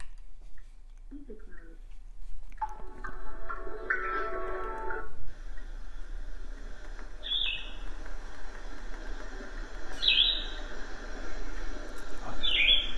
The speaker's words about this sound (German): Also hier so ein Rauschen mit Zwitschern.